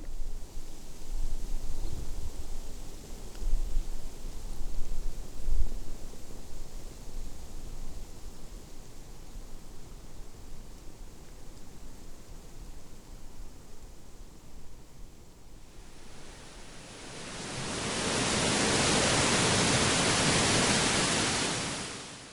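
Maple and birch leaves rustle in the wind, a soft steady hiss that swells into a louder, brighter rush of foliage near the end. No voices.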